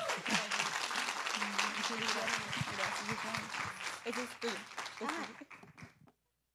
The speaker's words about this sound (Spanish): Vamos a darle otra vez otro aplauso.